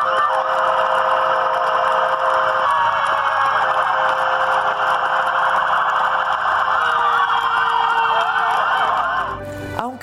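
Several hospital emergency sirens wail together as a farewell tribute to a nurse who died of COVID, loud and sustained, their overlapping pitches rising and falling in steady sweeps for nearly the whole clip before cutting off abruptly near the end.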